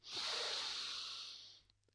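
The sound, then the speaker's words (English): A single long, deep inhale through the nose during a breathing exercise, a soft airy hiss rising quickly and holding steady for over a second before fading, quiet with no talking. “And you want to be breathing in through your nose and out through your mouth.”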